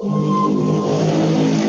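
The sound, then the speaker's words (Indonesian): A loud motorcycle engine roars, a steady, throaty drone with a slight rise in pitch near the start, filling the whole short moment with no voices. “Waduh, motornya ngeri sekali.”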